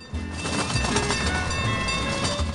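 A small, full zoo train at the Milwaukee County Zoo rolls past with a steady rumble and rhythmic clickety-clack of wheels on the track, continuous and fairly loud throughout, with no voices.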